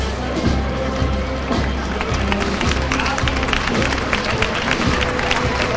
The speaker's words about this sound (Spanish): Pues levantando esos aplausos de la gente que espera esta carrera oficial